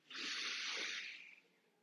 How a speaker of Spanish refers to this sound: Lo otro es respirar, inhalar y exhalar por la nariz de la manera más lenta y superficial posible. Entonces, tomamos aire, exhalamos exhalamos. Es muy importante que la caja torácica no se abra.